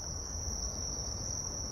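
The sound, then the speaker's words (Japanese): A cricket-like insect that had just flown in on a reporter chirps in a steady, continuous high-pitched trill at moderate loudness, with no voices and only a faint low rumble underneath. “今ですね、ちょっと話してたら、虫が飛んできてびっくりしちゃって。”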